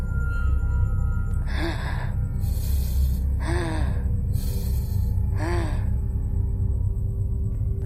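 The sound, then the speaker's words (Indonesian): Heavy, raspy sniffing breaths from inside a tent come loud in about three slow, evenly spaced cycles of drawn-in and pushed-out air, over a steady low rumble with no voices. “Dan ketika berada di luar tenda, dia ini mendengar ada suara nafas yang mengendus sangat berat.”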